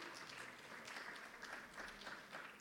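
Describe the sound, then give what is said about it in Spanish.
An audience at a morning church service applauding the Lord, steady dense clapping that keeps a constant level for a few seconds, with no one speaking over it. “Así que nos preparamos y dale un aplauso al Señor.”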